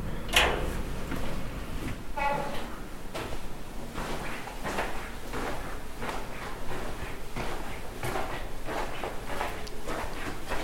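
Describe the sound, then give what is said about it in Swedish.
Someone knocks on a slightly open office door: a sharp knock or bump, a brief creaking squeal as it swings open, and then a series of soft thuds and shuffling movement. “Står dörren lite öppen? vi knackar på.”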